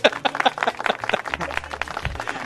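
A crowd applauds steadily for a couple of seconds, a dense, crackling patter of many hands clapping at once, with a low hum underneath.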